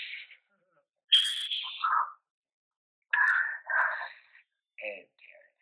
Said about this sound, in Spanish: acá hay un pajarito que me molesta.